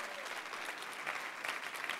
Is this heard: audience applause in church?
yes